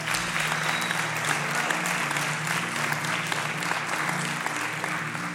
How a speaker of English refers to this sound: Thank you so much for bringing those different aspects to the table. Yeah, let's give them a round of applause.